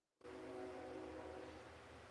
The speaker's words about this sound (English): besides the train. That's my train.